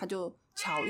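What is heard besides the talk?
cat meowing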